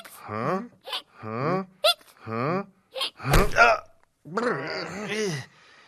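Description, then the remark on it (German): A turning carousel makes repeated high, whining squeaks that rise and fall in a steady rhythm, ending with a longer drawn-out squeal. Fairly loud, with no one talking. “Nilpferde machen doch nicht so quietschende Hick, Hick, Hick-Geräusche. Das Geräusch kommt natürlich von dem Karussell.”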